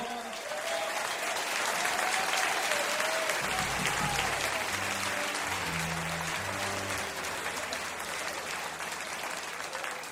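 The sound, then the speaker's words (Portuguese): Loud, sustained applause from an audience welcoming a guest pianist fills the whole stretch, a dense steady wash of clapping with a low hum and some faint tonal sounds rising underneath midway. “Fuerte el aplauso”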